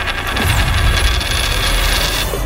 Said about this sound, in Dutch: Wat zal het zijn? Kop of munt? Nou, daar gaat hij.